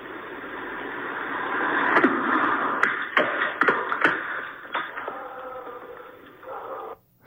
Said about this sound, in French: Alors, euh, ce bruit très euh, champêtre d'une roche qui tombe avec un chien qui aboie en arrière, en fait, c'est le son qui a été capté par une caméra de sécurité d'une dame en France d'une météorite qui est tombée sur sa table